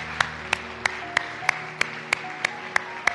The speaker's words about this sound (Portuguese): Se ponham de pé, por favor. E uma vez que estén de pé, assim de pé, dê um aplauso a Jesus Cristo. Ele merece, verdade? Eu estou seguro que ele merece.